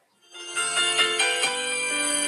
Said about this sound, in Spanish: estábamos escuchando un mix que se llamaba el mix graduación. Pues se las voy a poner porque es bueno.